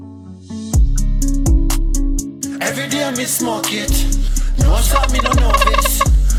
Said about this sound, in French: Et là, on est sur un petit trip euh, reggae hip-hop trap. Je vous laisse écouter ça tout de suite.